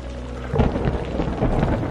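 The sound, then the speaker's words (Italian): A deep, continuous rumble of thunder rolls through an evening storm with lightning flashes and wind, swelling into a louder burst midway and staying heavy with rain-like hiss layered over it; no one speaks. “Intanto tuoni fragorosi, intercalando il sordo brontolio di fondo del cielo sconvolto, si susseguivano senza sosta.”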